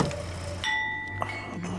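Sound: champagne glasses clinking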